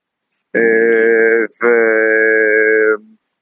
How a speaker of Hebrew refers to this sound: וכן, אתה יודע, זה הכל, שומע את השיר הזה עכשיו ברקע, וכל, שעבדנו בו הרבה בפרויקט היפה הזה